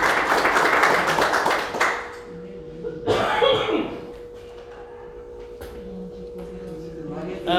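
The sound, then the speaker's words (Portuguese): An audience at a church service breaks into dense, loud clapping for Jesus that lasts about two seconds, then dies away, leaving a steady low hum, a brief burst of noise and some faint voices. “Vamos dar salva de palmas para Jesus.”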